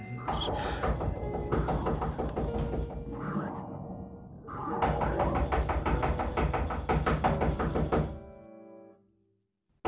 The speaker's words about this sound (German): Ich bitte untertänigst um Verzeihung. Ich hatte geklopft. Meine Fingerknöchel sind schon ganz wund. Aber es hat niemand geantwortet.